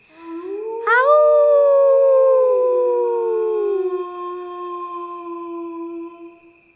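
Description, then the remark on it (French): A single long wolf howl rises sharply, then holds a steady, mournful tone for several seconds before slowly fading away, heard at night by moonlight among forest trees. Clear, with no voices present. “Pendant la nuit, on a entendu plein d'autres animaux, des chevreuils, des chauves-souris, et on a même entendu le chant du loup au clair de lune.”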